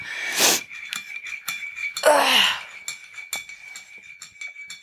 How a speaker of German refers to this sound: Und was ihr gerade hört, ist tatsächlich eine Kaffeetasse.